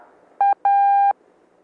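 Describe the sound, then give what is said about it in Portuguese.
Morse code letter A sounded once as a steady mid-pitched tone: a short beep, a brief gap, then a longer beep, clear and loud with no talking. “Transmitindo duas vezes a letra A com a cadência de separação de letras ou caracteres.”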